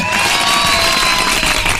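A crowd bursts into applause and cheering, a dense, steady wash of clapping that stays loud and full for the whole couple of seconds with no one speaking.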